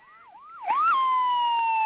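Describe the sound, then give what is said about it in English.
A police car siren whoops up and down in quick rising and falling sweeps as the police car pulls up alongside, then holds a loud, steady wailing tone, with no voices present. “And then the police pulled up alongside,”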